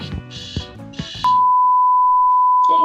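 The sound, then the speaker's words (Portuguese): A loud, steady electronic alarm tone cuts in and holds unbroken to the end, following a second or so of busy, voice-like sound. “É meu alarme, gente.”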